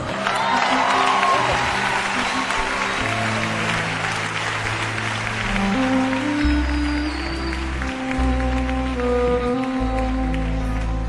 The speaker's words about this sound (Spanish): Si ese aplauso es para mí o para la canción, está bien. Pero si es para Dios, está muy flaco. Tiene que estar de pie y gritando.